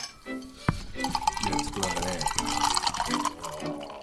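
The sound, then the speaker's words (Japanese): Red Bull energy drink is poured from a can into a glass in a steady, gurgling stream lasting a few seconds, with fizzy splashing and a sharp clink near the start. “がっつり入れちゃった”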